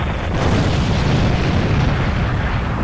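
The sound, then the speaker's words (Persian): A ship's ammunition store exploding on a stormy sea after a cannonball strikes the hull and fire reaches the ammunition: a loud, deep, continuous rumbling roar with dense crackling noise that holds steady for the whole stretch, with no voices. “یکی از توپ ها به بدنه کشتی برخورد میکنه و آتش به انبار مهمات کشتی میفته”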